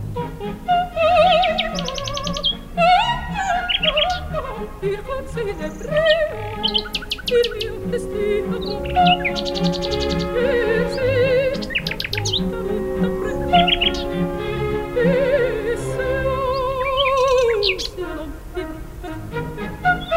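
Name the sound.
nightingale singing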